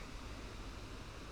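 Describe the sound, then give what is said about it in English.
A steady, soft rush of wind blowing through Wester Park, a city park, on a windy, sunny and warm spring morning, with a low rumble and no distinct events or voices, fairly quiet and unchanging throughout. “This is the sound of a windy and sunny spring morning in the Wester Park.”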